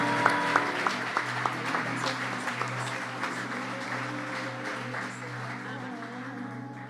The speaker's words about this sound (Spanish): Dámele el aplauso, dáselo fuerte, dáselo fuerte.